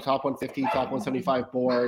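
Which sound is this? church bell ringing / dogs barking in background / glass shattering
dogs barking in background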